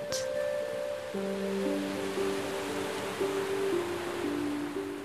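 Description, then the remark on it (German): A steady wash of turquoise ocean surf rushing continuously over a black sand beach, with soft sustained synth-like tones layered underneath and no voices. “Du lässt das Rauschen des Meeres in deine Ohren strömen und spürst, wie es alle störenden Gedanken aus deinem Kopf vertreibt und sich eine angenehme Ruhe in dir ausbreitet.”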